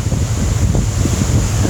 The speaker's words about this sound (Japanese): 海の音聞こえますでしょうか風の音聞こえますでしょうか多分なすごいと思うんだよな